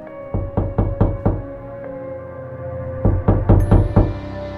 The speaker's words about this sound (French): Et il est passé minuit, ça cogne à la porte.